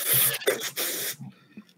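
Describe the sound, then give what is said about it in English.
A voice imitates spraying people with Lysol aerosol disinfectant, three quick, loud hissing bursts in a row, trailing off into a few faint breathy sounds. “you know what I'd be doing? I'd be spraying people with Lysol.”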